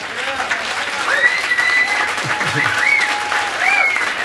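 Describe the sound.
Steady audience applause, a dense crackle of many hands clapping at an even loudness throughout, with faint cheers and voices mixed into the clapping.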